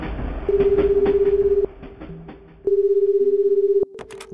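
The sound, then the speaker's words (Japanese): A phone line rings twice as a call is placed about a business meeting at 14:00 that day, each ring a steady, slightly warbling tone lasting about a second, heard through the receiver over faint background noise, with no one answering yet. “本日14時からの富田様との打ち合わせの件でお電話させていただきました”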